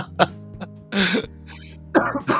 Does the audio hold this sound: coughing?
yes